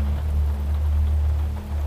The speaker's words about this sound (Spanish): La lluvia parece no tener fin, como la vida.